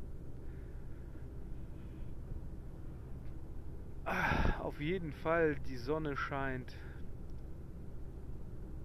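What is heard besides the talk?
car driving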